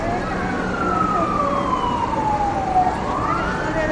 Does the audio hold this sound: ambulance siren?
yes